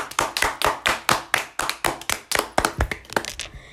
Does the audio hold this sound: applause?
yes